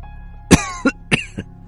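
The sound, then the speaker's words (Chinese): A fit of harsh, rasping coughing from a person with an old, slow voice seated in a rocking chair in the middle of a living room: four hacking bursts in quick succession, each strong cough followed by a weaker, throaty echo, with no talking. “那个人头也没回头的说，声音苍老而又缓慢，夹杂着一阵撕心裂肺的咳嗽声。”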